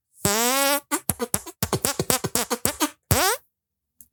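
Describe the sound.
A sustained buzzy hand fart opens, followed by a rapid run of short squelching blasts and one last long one, loud with no talking.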